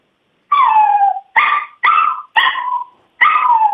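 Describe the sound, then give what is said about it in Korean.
A person's voice imitates a puppy whining and whimpering because it wants to come in through a closed room door but cannot, five drawn-out nasal cries in a row with short pauses between them, fairly loud with no other sounds. “방문이 닫혀 있는 상태에서 강아지가 들어오고 싶은데 못 들어오는 소리입니다.”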